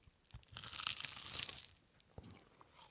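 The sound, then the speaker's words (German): A flaky pastel de nata (custard tart) pastry is bitten into, giving a dense, bright crunch that crackles for about a second, followed by a few softer crumbly snaps and light chewing sounds with no talking. “pass auf, ich beiß einmal rein, hier fürs Radio.”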